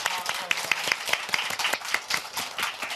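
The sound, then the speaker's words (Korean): An audience applauds in thanks at the end of a talk, a dense patter of many hands clapping at once that holds steady for the full three seconds, with sharper individual claps poking out of the wash. “긍정 에너지 가득한 이야기로 힐링 전해주신 이희경 씨께 다시 한번 감사의 박수 부탁드리겠습니다.”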